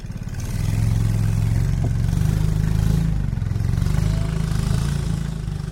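A fishing boat's engine chugs steadily at a low, throbbing pitch as it heads out onto a lake in Cambodia past hundreds of fishing boats in afternoon haze, loud and continuous with a slight rise and fall in intensity, mechanical clatter running underneath and no talking.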